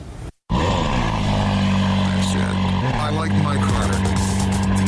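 Car engines roar loudly at the 2018 Atlanta International Auto Show, a steady throaty drone with shifting pitch that fills the whole stretch after a brief dropout near the start.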